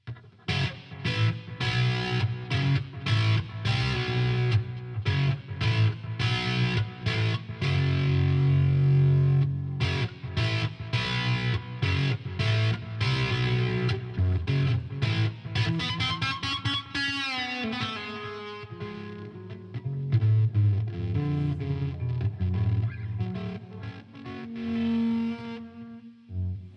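A distorted electric guitar plays a chunky, repeated riff for nearly half a minute, with a bending, sliding phrase midway and a sustained low note near the end, no voices.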